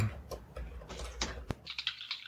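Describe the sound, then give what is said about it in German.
Soft, irregular clicking of keys being typed on a computer keyboard, a handful of quick taps with short pauses, fairly quiet, with no one speaking. “Was hast oh. du ah. getippt?”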